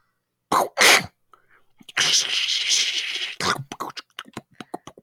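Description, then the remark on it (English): A voice mimics pool balls dropping into pockets: two breathy bursts, a long hissing rush, then a quick, uneven string of short mouth pops and clicks, fairly loud. “I like the sound of the of the popping representing the balls going into the pockets.”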